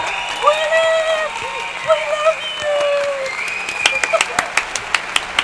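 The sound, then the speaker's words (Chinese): Sustained voiced sounds, like cheering, give way to a run of sharp, scattered handclaps over the last couple of seconds, moderately loud and uneven, as if from a small audience. “大概这样，掌声，掌声，然后。”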